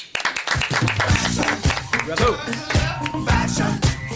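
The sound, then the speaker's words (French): An audience breaks into steady, dense applause lasting several seconds for a fashion specialist, many hands clapping close together, with voices and a tonal backing sound mixed underneath. “messieurs dames merci d'applaudir notre spécialiste mode”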